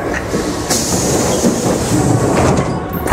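A train car rolls along steadily with a dense rumbling roar and faint rhythmic clatter of wheels on rails, loud, with a brief high squeal or hiss partway through.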